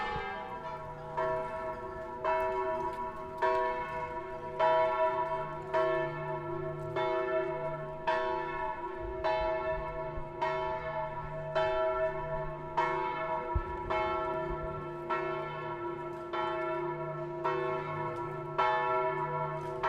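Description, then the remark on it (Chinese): Church bells peal steadily, a run of rich, resonant metallic strikes in quick succession, their overlapping tones ringing out loudly with no voices present. “一直很喜欢录教堂的钟声，除了宗教用途之外，它是一天中重要时间节点的指示。”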